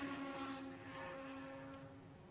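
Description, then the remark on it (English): The engine of an Acura prototype race car, Penske's number six, drones steadily as it comes into the pit lane, a loud, continuous low hum with a buzzing harmonic edge and no voices. “Penske just come in in front of us. That's the Acura number six.”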